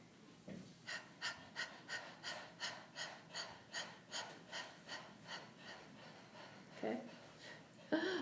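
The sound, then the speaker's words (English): A person pants like a puppy as a breathing exercise, about a dozen quick, evenly spaced breathy huffs at a steady rhythm, fairly quiet, with a brief vocal sound near the end. “Um, so, um, uh, let's try to then, before we do the bunny breathing, pant like a puppy.”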